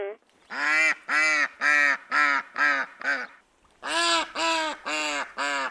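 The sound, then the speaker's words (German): A rapid series of loud, harsh duck quacks, about ten calls in two quick bursts with a short pause between, excited in tone. “Die aufgeregten Enten, du hast sie zugeordnet.”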